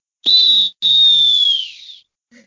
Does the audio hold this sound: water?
no